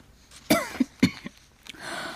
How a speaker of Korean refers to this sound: 아, 아, 기침을 너무 많이 해서 그런가. 아, 가슴이 너무 아파. 숨도 잘 못 쉬겠어.